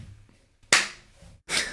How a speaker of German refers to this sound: Nein, mach sowas nicht. Hier wird nicht geklatscht.